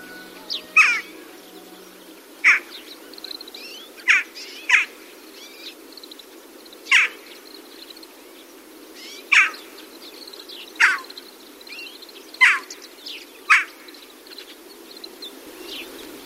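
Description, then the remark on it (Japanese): Short, sharp calls of Daurian jackdaws, the smallest crow seen in Japan at 33 cm long, mixed into a flock of rooks at a rice paddy, ring out about ten times at irregular intervals, each a brief clipped note, over a faint steady background hiss with no talking. “コクマルガラスです日本で見られるカラスの仲間では最も小さく全長33センチ羽の色は白黒のタイプと全身が黒っぽいタイプの2種類のコクマルガラスがいます”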